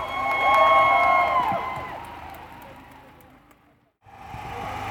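An outdoor crowd cheers and applauds, with sustained whistle- or horn-like tones over the din at first. The noise fades gradually, cuts out briefly, then the crowd noise returns.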